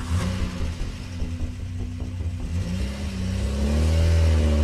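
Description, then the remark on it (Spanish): A car engine revs up and the car pulls away, driven off as fast as possible, its low rumble rising steadily in pitch and loudness over a few seconds, with no talking. “Entré a mi carro, puse la carpeta y las cintas en el asiento delantero y manejé lo más rápido que pude.”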